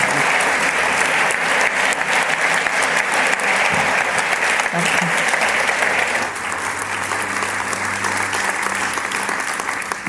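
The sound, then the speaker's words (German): Sustained audience applause fills the whole stretch, a dense, steady patter of many hands clapping, easing slightly in loudness partway through, with a brief spoken word of thanks heard over it. “Gebt doch dazu einen Applaus.”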